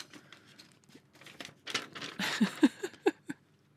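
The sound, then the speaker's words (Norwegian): A voice imitates crumpling paper with the mouth: a dry run of crackly, crinkling clicks and rustles, building in density and loudness before ending in a few sharper pops. “Du trodde, du trodde kanskje det er papir jeg holder foran meg? Det var faktisk med munnen.”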